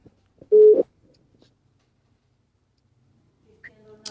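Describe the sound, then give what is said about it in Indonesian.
A phone call placed at about midnight connects with a single short, loud tone burst, followed by a few seconds of near silence before faint, muffled sounds come through the line at the end. “Oke, langsung aja kita coba telepon”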